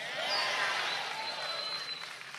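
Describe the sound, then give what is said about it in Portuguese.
A church audience applauds for Jesus in a dense, steady wash of clapping that holds fairly level throughout, with a few thin high tones like faint whistles or cheers riding above it. “Aplaude mais forte se for para Jesus, com a mão.”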